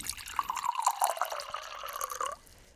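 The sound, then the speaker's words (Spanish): Water pours steadily into a glass for about two seconds, a bubbling trickle whose pitch rises as the glass fills, then stops abruptly. No one speaks. “¿Gusto más agua? Dale.”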